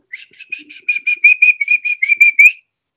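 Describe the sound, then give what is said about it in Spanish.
A person whistles a quick run of short, chirpy notes in a steady rhythm, rising slightly at the end, clear, then stops; no one speaks. “Con ese chiflidito, de gol el equipo empezaba a volar.”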